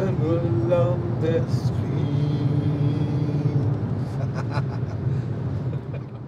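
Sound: car interior engine rumble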